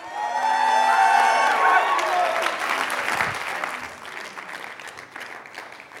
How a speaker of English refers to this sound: Come on now, let's give it up for the King of Kings and the Lord of Lords. Let's give the Lord a round of applause. Come on, come on, come on.